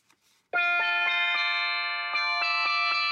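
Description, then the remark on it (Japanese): A processed, hula-style musical sound evoking Hawaii, the final note of a piece: a bright, sustained chord with a shimmering chorus effect, pulsing in a steady rhythm for about three seconds, loud, with no voices. “ほらフラのフラの感じの音やん感じたうん感じた全然感じんかったけどいやいやあるあるあのこうこういう感じの音よあれなんて言うんやろうね加工”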